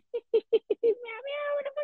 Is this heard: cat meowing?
yes